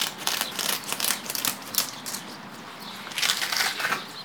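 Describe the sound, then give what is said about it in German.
Crackling tearing sounds come in a run of short uneven bursts as a woman wearing two gloves pulls the tough skin off a large turbot to prepare it. No voices are heard. “Sie greift zu einem großen Steinbutt, den muss sie noch vorbereiten.”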